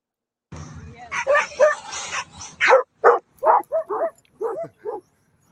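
Dogs bark excitedly while chasing a remote control car, a quick, uneven run of sharp yips and barks, fairly loud, with a busy, noisy stretch of overlapping sound at the start.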